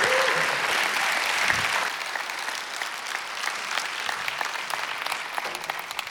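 An audience claps steadily, a dense wash of many hands that holds loud for about two seconds, then eases to a lighter, thinner patter of scattered claps for the rest.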